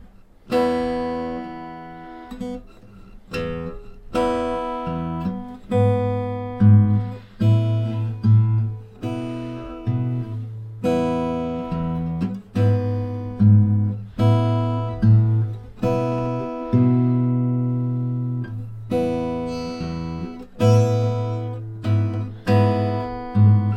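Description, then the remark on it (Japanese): Fingerstyle solo acoustic guitar played alone with the fingers during basic practice, the thumb on the bass notes and the index and middle fingers plucking, with notes decaying over a steady low bass line in a slow, even rhythm and brief gaps between phrases. “ソロギター基本（フィンガースタイル）練習”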